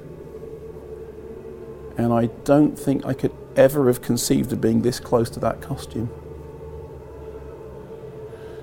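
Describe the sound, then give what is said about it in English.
Sustained, droning orchestral music from a film's Stargate sequence hums low and steady in the background of an exhibition throughout, while a person speaks for a few seconds in the middle. “The sound you can hear in the background is because famously that's Ligeti”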